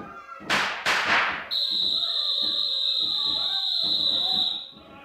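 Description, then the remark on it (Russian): Two loud, sharp gunshots ring out in quick succession, then a long, steady, piercing whistle holds for several seconds over faint background voices. “Кто свистел? Кто стрелял?”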